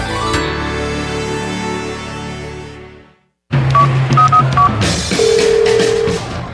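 A phone call goes unanswered: short electronic beeps and tones repeat on the line, loud and close, following a sustained musical tone that fades into a brief silence.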